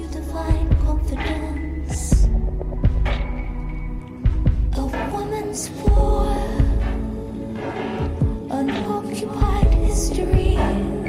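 A band's song with a female lead singer plays loud and continuous, with dense layered instruments over a steady, thumping drum beat. No one talks over it.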